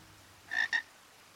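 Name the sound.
frog croaking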